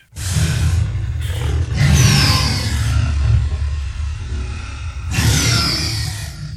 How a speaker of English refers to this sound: that is the sound of an animal that does not exist anymore. That's the imagined sound of what the Tyrannosaurus rex dinosaur might have sounded like. They lived on the North American continent, what is now called the North American continent.